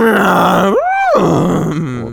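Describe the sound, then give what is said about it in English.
A person's voice imitates a horse's neigh: one loud, drawn-out, groaning call that leaps sharply upward in pitch midway, then slides back down to a low rumble. No talking. “that does sound like a horse.”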